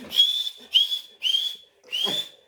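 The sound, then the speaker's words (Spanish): Four sharp, high-pitched whistle blasts in quick succession, each loud and shrill, lasting about half a second with brief gaps between them. “No, ya me lo imagino Cada ahora escucha el pito por”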